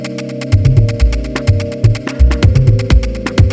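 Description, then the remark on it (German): A printer runs steadily, printing a great many sheets one after another with rapid rhythmic clicks and a low mechanical thumping that repeats about every half second, fairly loud, with no voices. “Ich habe einen Drucker, der etwas ausdruckt, also sehr viele Blätter ausdruckt.”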